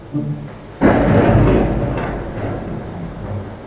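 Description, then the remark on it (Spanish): A loud crack of thunder bursts in and rumbles on, slowly fading over the steady hiss of rain. A brief murmur of voices comes just before the thunder. “Pero bueno, la lluvia no va a detener esto”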